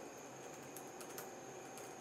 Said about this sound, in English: so I really need to get better at typing and speaking at the same time.